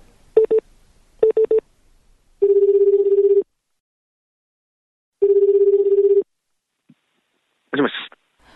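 A phone dials with two short bursts of keypad tones as a caller in Numazu city phones the training contact at a company's Numazu branch. A steady ringback tone then sounds twice with a pause between, followed by a brief click and a rustling pickup noise. No one speaks.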